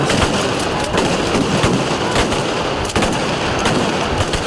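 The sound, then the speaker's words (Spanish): Loud, chaotic riot din at a street demonstration as bottles and stones are thrown and police charge: a constant wall of crowd noise and shouting, broken by repeated sharp cracks and bangs at irregular intervals. “Lanzamientos de botellas y piedras y una carga policial.”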